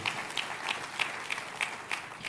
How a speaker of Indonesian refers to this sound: Tepuk tangannya boleh yang paling meriah buat Tuhan dia.